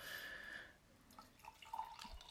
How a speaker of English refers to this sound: But this is a honey lavender, it's her honeybush and lavender tea infused into local honeys, a variety of honeys, and it's tasting pretty good. Uh, I haven't got them a bottle yet, but I'm gonna pour you another glass.